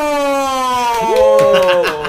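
A police siren sound effect wails with steady tonal sweeps, its pitch gliding up and down; a second rising-falling tone enters midway, making it louder and busier toward the end.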